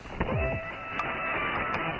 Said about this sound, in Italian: La sigla di interferenze annuncia come ogni giovedì l'arrivo in studio di Andrea Borgnino con le sue storie di radio dal mondo.